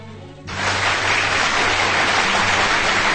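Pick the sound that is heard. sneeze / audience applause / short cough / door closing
audience applause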